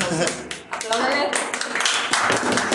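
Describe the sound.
A small group claps their hands for a woman in a steady, dense burst of applause for a few seconds, fairly loud, with voices chattering underneath.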